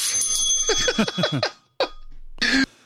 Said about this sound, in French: Donc, quand ils mettent la cloche, ça veut dire euh, c'est cet extrait-là qu'on voulait. Euh, c'est cette partie-là de l'extrait qu'on voulait que vous entendiez.